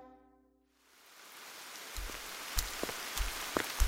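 Soft rain patters steadily after a brief fading tone at the start, with scattered closer drips and taps landing irregularly over the broad hiss of falling water.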